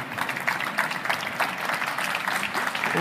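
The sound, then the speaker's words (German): Steady applause from a group for colleagues after their showcase, a dense patter of many hands clapping continuously at an even, moderate level with no voices standing out. “Nochmal einen kleinen Applaus für die Kollegen und großen Applaus, Entschuldigung, für die Kollegen.”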